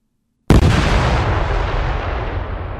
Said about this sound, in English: Uh, so to give you an example, this is uh, an N- ANFO with Eurodyn dynamite uh, blow charge. So it sounds something like this.